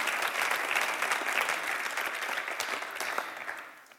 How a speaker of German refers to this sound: Applaus